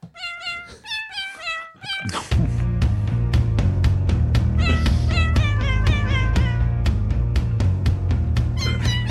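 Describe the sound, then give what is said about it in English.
A cat meows several times in quick succession, clear, then keeps meowing over a sudden loud, steady background with a regular rhythmic pulse. “Um, do you know who also may or may not like sours? It's my cat.”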